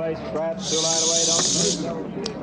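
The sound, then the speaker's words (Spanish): A loud, steady whistling hiss of an object falling onto a farm rushes in for about a second, like a firework fizzing skyward, then cuts off while a man's voice keeps talking underneath. “Un silbido, algo así.”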